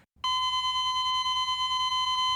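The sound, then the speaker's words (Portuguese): A heart monitor sounds one steady, unbroken high-pitched tone that holds loud for about two seconds without pausing into separate beeps, over a low rumbling hum. “Aquela máquina que fica medindo o coração, aquele som, ele te dá uma paz, mas quando ele fica”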